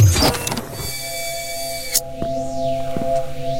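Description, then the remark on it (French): Elevator doors of the elevator Rodrigo slide open onto the hall of elements at level minus 1, with a steady motorized hum and a whirring rise, followed by a sharp click and a few soft mechanical knocks as the hum continues. No one speaks. “Lorsque les portes de Rodrigo s'ouvrent sur la salle des éléments”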